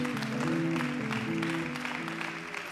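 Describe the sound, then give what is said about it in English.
An audience claps unto the Lord in praise, a steady, dense wash of applause that stays loud throughout, with low held tones sounding beneath it. “Would you clap unto the Lord tonight, for he is worthy?”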